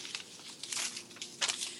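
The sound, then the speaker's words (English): Paper slips being shaken and rustled in a container for a prize drawing, a continuous crinkly, crackling rustle with several louder bursts as the paper is jostled. “Unless you just have an MP3 of the sounds of paper.”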